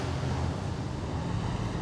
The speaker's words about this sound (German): Eine ganze Kolonne von Wagen kommt uns entgegen. Die, die fahren ja halsbrecherisch. Wie in wilder Flucht.